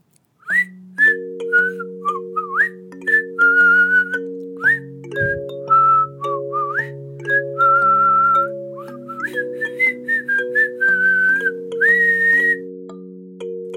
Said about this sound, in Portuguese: Era uma vez uma raposa que passeava tranquila, sentindo o vento fresco no rosto, observando o lindo dia e vendo toda a natureza ao seu redor. Ah, ela gostava daquela vida. Enquanto caminhava, ela assobiava.